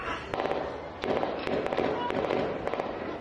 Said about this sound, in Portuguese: Da janela de casa, os moradores registraram o barulho das rajadas de tiros.